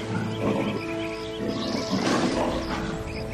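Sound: lion roaring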